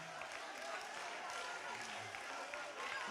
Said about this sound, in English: It's still, you haven't clapped like that in a while. You haven't smiled like that in a while. Come on, clap until you feel an assurance. Shout until you feel a witness. Praise them until you believe it again.